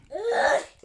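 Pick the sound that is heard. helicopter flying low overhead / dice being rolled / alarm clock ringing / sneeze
sneeze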